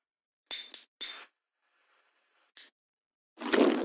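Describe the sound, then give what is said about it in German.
A lighter is flicked three times to light a candle in the dark, each a short, sharp scratchy rasp with pauses between, then a fourth, louder and longer strike with a rough rush as it catches. No one speaks. “Und ich musste mir jetzt tatsächlich eine Kerze anzünden, damit etwas Licht ins Dunkel kommt.”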